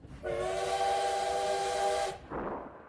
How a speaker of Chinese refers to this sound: 呜，老火车出发了，哐当哐当，老火车摇晃着，慢慢的往前开。